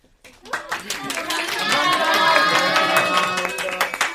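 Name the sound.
audience clapping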